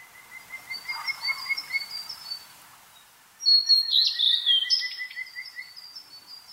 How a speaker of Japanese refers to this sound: カジカガエルも冬眠していた森の土の中から出てきて岸辺の岩の上でメスを呼ぶために鳴いています